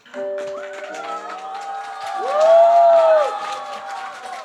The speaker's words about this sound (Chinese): 掌声有请主持人。